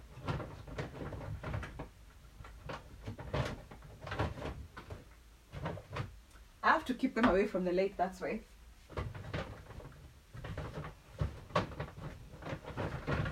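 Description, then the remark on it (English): A short burst of rummaging through a cupboard while picking out moisturizers, with bottles and items clattering and shuffling for about two seconds, between stretches of a person talking. “I'm just picking my moisturizers, right?”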